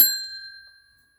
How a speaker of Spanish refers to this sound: Ya sonó el timbre.